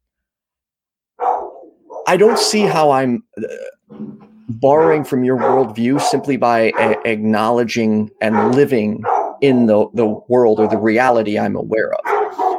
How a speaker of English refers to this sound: my dogs are barking again uh, sorry they should stop in a moment